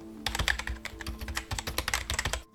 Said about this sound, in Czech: Nebo psaní na klávesnici